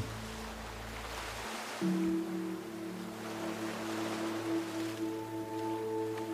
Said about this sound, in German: Und es ist ja oft so, dass das Wasser auf den Sand trifft und dann immer weiter schwappt. Und irgendwann zieht sich das Wasser wieder zurück aufs Meer, bis die nächste Welle kommt.